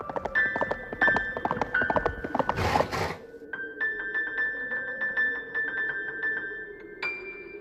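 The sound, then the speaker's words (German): Hooves clip-clop in a steady rhythm as a hoofed creature passes through an icicle cave, over a high, ringing tone, broken by a sudden noisy sneeze; afterward the clopping continues more lightly as the shimmering tones ring on. “Hat, glaube ich, so Hufe und äh, braucht dringend ein Taschentuch.”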